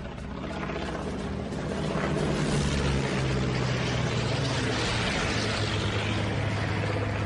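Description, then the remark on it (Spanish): The engine of squadron leader Sandy Moats's fighter plane roars loudly and steadily over the southwest end of an air base, a dense, throbbing drone with a deep, droning undertone that swells slightly, as if passing overhead. No voices. “Pero justo en ese momento oye el rugido del avión del jefe de su escuadrilla, Sandy Moats, sobre el extremo suroeste de la base.”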